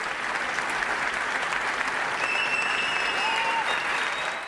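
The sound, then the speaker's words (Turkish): Dense, sustained standing-ovation applause from a large crowd in the screening hall at the 76th Cannes Film Festival premiere of Nuri Bilge Ceylan's film Kuru Otlar Üstüne, steady and loud throughout with a few faint whistles rising above the clapping. “Biz, 76. Kan Film Festivali'nde bir araya gelen sinema dünyası bir filmi 10 dakika ayakta alkışladı.”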